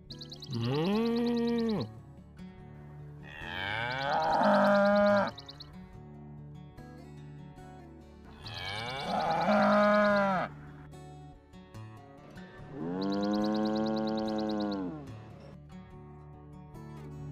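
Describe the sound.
A human voice imitates a cow mooing four times, each drawn-out, wavering call lasting a second or two and separated by short pauses, loud with no talking between them.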